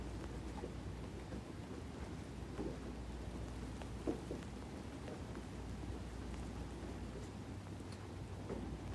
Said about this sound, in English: Letting the sound of the rain gently tap you.